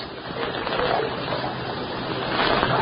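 Water sloshes and splashes steadily as a woman in a white nightdress washes her face and hands in a water pail by firelight, scooping and rubbing water, continuing without a break.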